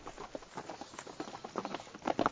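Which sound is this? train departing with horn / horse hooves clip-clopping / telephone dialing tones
horse hooves clip-clopping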